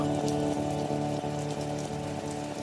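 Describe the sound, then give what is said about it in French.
Steady rain pours down in a continuous dense hiss, layered over a sustained low tonal drone that keeps a faint pulsing rhythm throughout. “On va laisser la pluie tomber”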